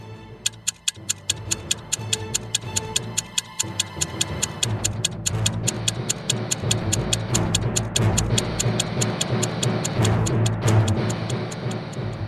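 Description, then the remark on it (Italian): Steady, rapid ticking like a timer counting down, sharp, evenly spaced clicks, several per second, continuing throughout over a low, murky hum. “Sto dicendo che il poeta e la sua squadra di spioni conoscono il mondo sentono nelle ossa il cambiare del tempo, l'addensarsi delle nubi, il ticchettare dei timer esplosivi.”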